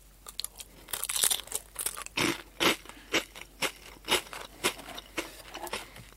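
Potelong potato snack sticks being chewed, a steady run of sharp, crackly crunches roughly every half second, bright and fairly loud, with no talking.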